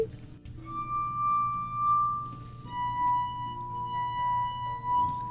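Clear, ringing tones from wet fingers rubbing the rims of drinking glasses, played by a student performing the notes so, mi, mi. A few long, sustained pure notes form a slow, simple melody, steady and fairly loud, over a low background hum.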